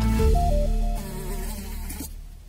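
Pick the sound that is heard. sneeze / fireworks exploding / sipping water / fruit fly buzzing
fruit fly buzzing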